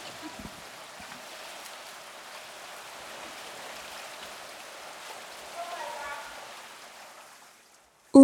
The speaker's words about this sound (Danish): Umiddelbart virker bøger og en hel masse vand som en rigtig skidt kombination. Så hvad laver jeg egentlig i Flintholm svømmehal?